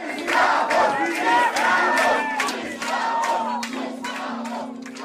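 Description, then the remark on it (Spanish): A large crowd of Brazilian doctors shouts "slaves" at arriving Cuban doctors in loud, rhythmic bursts, many voices overlapping into a dense roar that barely lets up, with a steady low hum settling in underneath toward the end. “Esclavos, dice ella, lo cual es una ironía, considerando que los médicos brasileños recibieron a sus colegas cubanos gritándoles esa misma palabra.”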